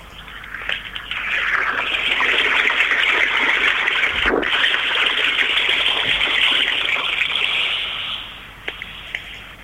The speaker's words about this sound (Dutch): Ik ga even mijn gsm naast de waterval houden, zodat jullie dat ook thuis op de radio kunnen ervaren.